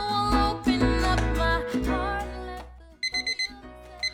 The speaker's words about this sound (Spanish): Bueno, esa alarma no es nuestra, es del grupo de niños que ya nos piden hora.